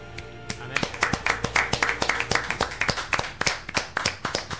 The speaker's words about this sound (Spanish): Mercury Steam y la verdad es que desde aquí pues de momento yo quiero pues dar un aplauso.